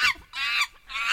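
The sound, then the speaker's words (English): A monkey sound effect: three loud, shrill, harmonic screeches in quick succession, each cut off by a brief pause, with no one talking. “That's, that's not a caller, that's a, that's the sound of a monkey.”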